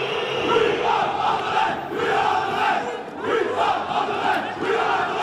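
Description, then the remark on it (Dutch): Angry football supporters roar and shout in a stadium at the end of a 0-0 match against Waasland-Beveren, a dense, continuous wall of crowd voices that swells and dips in loud waves with no single voice standing out. “Voilà, dat is eh, hoe het publiek erop reageert.”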